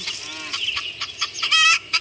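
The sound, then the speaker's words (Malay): Chickens clucking and squawking in quick, uneven bursts, clear, with a busy farmyard feel and no talking. “Ini apa? Ayam. Ayam.”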